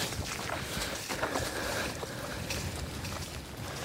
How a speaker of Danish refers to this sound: Øh, der er nogle af områderne, hvor der altså er ret meget, øh, ret meget vand allerede nu, som man kan høre på, på dagens reportage.